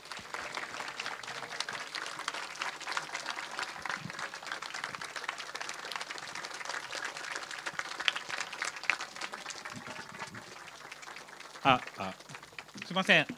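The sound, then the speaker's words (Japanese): A large audience at a talk event applauds steadily for over ten seconds to welcome the moderator and a singer, a dense, even clatter of many hands, with a few brief voices or cheers rising near the end. “皆様盛大な拍手でお迎えください”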